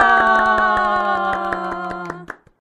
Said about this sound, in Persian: پس بیاین براش یه کف بزنیم هورا